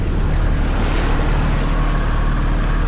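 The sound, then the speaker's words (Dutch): Loud, steady rush of water and wind against a moving boat, with a brief surge of splashing spray about a second in as the hull hits the wake waves of another passing boat that makes many waves. No voices. “We kruisen een andere boot die veel golven maakt. Dus we gaan hier subiet okay, lekker op en neer gaan.”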